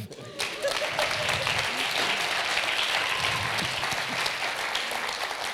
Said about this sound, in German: Danke vielmals. Applaus.